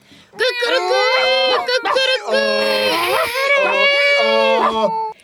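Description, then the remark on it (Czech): Several voices imitate a donkey, dog, cat and rooster all at once, a loud, continuous, wavering animal chorus with rising and falling cries lasting about five seconds. “A takto postavená spustila svůj zvířecí zpěv, jak nejlépe uměla.”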